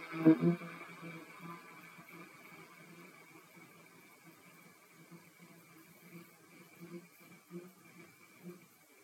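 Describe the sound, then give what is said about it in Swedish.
A soft, sustained hum on a closed-mouth "mm" made while breathing out during a guided relaxation breathing exercise, drifting along at low volume, a steady buzzing drone with slight wavering pulses, quiet with no words spoken. “Vi andas in igen och ut. Mm.”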